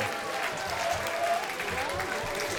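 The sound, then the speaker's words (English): A large stadium crowd of Athletics fans roars and applauds after Alex Leopard hits a first-pitch home run over the right-field wall, in a steady, continuous wash of cheering, with scattered whistles and shouts rising above the sustained clapping throughout. “Yeah, first pitch swinging was Leopard and drove it over the wall and finally gave the Athletics fans something to cheer about.”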